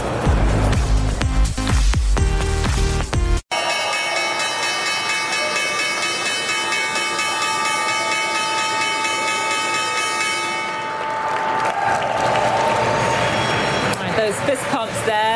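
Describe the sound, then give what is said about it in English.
The New York Stock Exchange opening bell, the final one of the trading week, rings in one long, loud, steady metallic tone for several seconds, with applause and crowd noise underneath, then voices and cheering take over as it stops. “Uh, that is the final opening bell of the trading week.”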